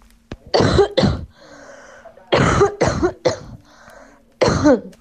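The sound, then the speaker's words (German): Six sharp coughs from an asymptomatic person in three clusters, paired bursts then a final single one, loud with quieter breathing between them; no one speaks. “So hört sich ein asymptomatischer Huster an.”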